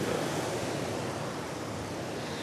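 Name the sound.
waves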